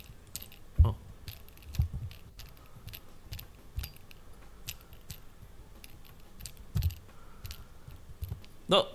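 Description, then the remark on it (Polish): Light metallic taps on the metal headband of headphones, irregular, mostly faint with a few sharper knocks standing out, plus a soft rustle near the end; no one speaks. “E, w każdym razie słychać, że to jest metal tam w środku.”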